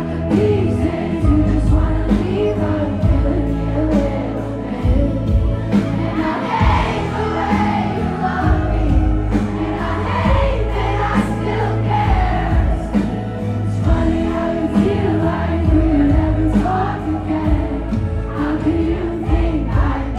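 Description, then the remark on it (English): A live concert song plays loud and steady, with a big audience singing along to all the words, screaming and cheering throughout, music and voices mixing for the whole stretch. “I loved hearing it perform live, and everyone in the audience was just so like sassy and it was so fun to like sing all these songs with her because everyone got so into it.”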